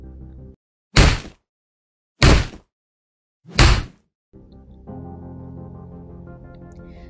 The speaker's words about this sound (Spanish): De pronto, empezaron a escuchar golpes sobre sus cabezas. Los golpes que provenían parecía ser de la parte de arriba del coche eran cada vez más rápidos y más fuertes.